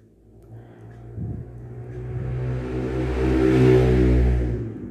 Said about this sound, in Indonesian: dan kedepannya lu masih bakal sering kok dengerin yang kayak gitu dengerin motor lewat kenceng banget nggak tahu aturan kayak gitu